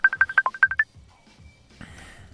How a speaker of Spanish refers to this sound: maldito Facebook, eh, me está llamando de algún lado y no puedo, no puedo contestar